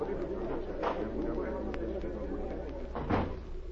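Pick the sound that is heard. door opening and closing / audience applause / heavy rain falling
door opening and closing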